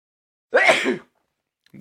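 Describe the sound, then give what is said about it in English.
A single forceful sneeze bursts out for about half a second, breathy and loud, followed by silence before a voice begins at the very end. “I'm about to sneeze.”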